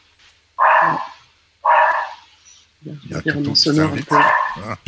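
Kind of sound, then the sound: animal, dog barking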